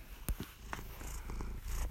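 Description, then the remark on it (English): A kitten named Tyson, wanting attention, purrs in a steady low rumble, with a few soft rustles and bumps mixed in. Nobody speaks. “Yeah, my cute little kitten.”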